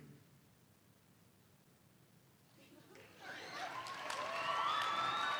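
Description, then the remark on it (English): A near-silent hush gives way, after about three seconds, to a crowd in an auditorium yelling together on a count of three, the muffled roar swelling and building louder, heard from another room. “Everyone in the auditorium, on three, yell as loud as you can.”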